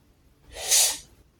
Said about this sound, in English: Let's find out, but not before first taking a sip of tea.